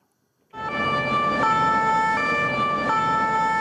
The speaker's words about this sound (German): Mit Blaulicht rast die Feuerwehr durch die Strasse. Ein Brandmelder hat Alarm ausgelöst.